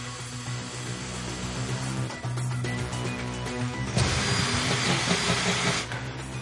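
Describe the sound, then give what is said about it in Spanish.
An agent outside a warehouse uses a power drill to bore a hole through the door. The drill whines steadily, its motor droning for several seconds before the grinding grows louder and harsher near the end. “En el exterior del almacén, un agente utiliza un taladro para hacer un agujero en la puerta.”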